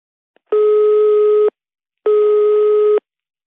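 A telephone busy signal heard through a phone line when calling the speaker's mother: two steady, loud tone bursts about a second long, separated by a short silence, with no voices.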